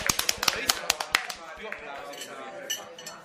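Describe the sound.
A burst of quick, crisp hand claps from a few people, loud and irregular at first, then thinning out as voices murmur in the background.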